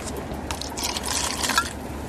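A drink is poured into a glass, a steady splashing trickle lasting a couple of seconds with a brief bright clink near the end, no voices.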